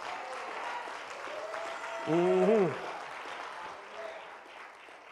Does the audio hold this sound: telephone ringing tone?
no